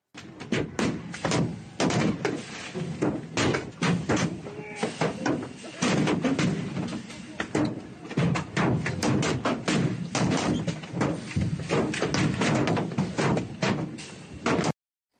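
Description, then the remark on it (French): Projectiles thrown at police on a Saturday in Sainte-Soline, France, during a banned protest against large water reserves for farm irrigation pound a gendarmerie truck, filmed from inside by a gendarme: a rapid, irregular barrage of loud, sharp thuds and bangs that continues almost without pause for about fifteen seconds. “Ce samedi, à Sainte-Soline, les forces de l'ordre ont fait face à une pluie de projectiles.”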